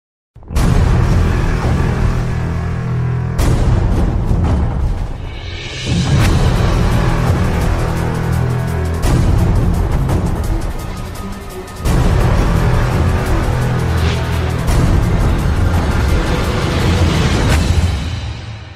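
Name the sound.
thrash metal song playing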